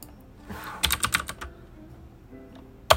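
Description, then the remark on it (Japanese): Rapid clattering keystrokes on a computer keyboard, a quick burst of several clicks near the start, then a pause and a final sharp clack, with no voices. “あの、いろんな方からね、お声をいただきますが、えー、っと、何このラジオの中から聞こえる、このね、キーボードのカタカタ音が結構好きだというね、そういう、えご意見、ご意見をいただくのもね、ちょっと多くなってきましてね。”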